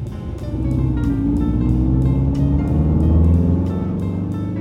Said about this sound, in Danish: Så sætter de sig alle sammen ind i bilen, og faren her starter motoren, og de kører ud af bilvasken hen ad landevejen på vej mod familiefesten.